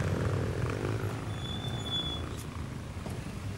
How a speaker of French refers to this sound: Les flux de gaz d'échappement que je viens de me ramasser dans la gueule Les motos, c'est infect Vous êtes infect, salope de moto c'est ça, faites vos provocatrices.